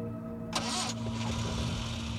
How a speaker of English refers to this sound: The car spits into life, and they shoot off into the London haze.